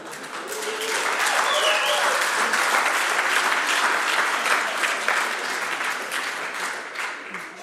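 An audience breaks into sustained applause, many hands clapping in a dense, steady wash that swells quickly and holds for several seconds before easing slightly. No one speaks over it.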